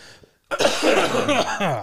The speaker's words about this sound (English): How about we all take a commutative cough? All right, on three. Three, two, one.